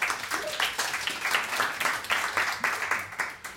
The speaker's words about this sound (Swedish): Eh, kungen är här också. En applåd för Hans Majestät.